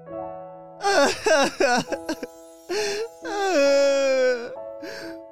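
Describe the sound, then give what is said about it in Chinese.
A person sobs and wails in loud, broken bursts: several quick choked cries, then longer drawn-out moaning wails that rise and slide down in pitch, with no other voices. “又是这个熟悉的哭声。”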